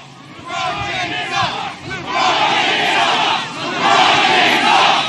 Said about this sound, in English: Um, so, anyway, that went on uh, for a while there. They were chanting, LeBron James sucks. LeBron James sucks.